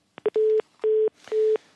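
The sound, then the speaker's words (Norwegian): A telephone busy tone after a dropped phone call from Heathrow: a steady electronic beep pulsing on and off in quick, even quarter-second bursts, loud and clear with no voices. “Der mistet vi Kim Tråvik, som til daglig er ambassadør i London”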